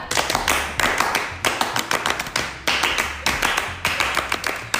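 A crisp rhythmic clapping pattern, the Indonesian Pramuka scout clap (tepuk pramuka), performed as quick bursts of claps grouped into a repeating beat, with no one talking over it.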